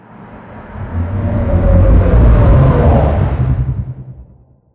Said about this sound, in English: And then this final version I made with some underwater recordings of different whales and sea creatures.